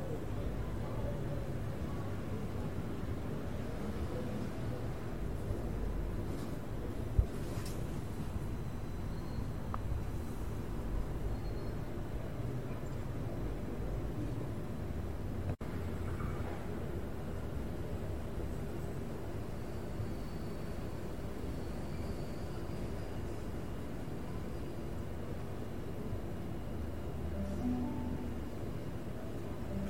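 Steady, low rumbling ambience of a train station platform in Sydney, Australia, while waiting for a train, with a constant hum of machinery and faint, indistinct background murmur, occasional soft bird chirps.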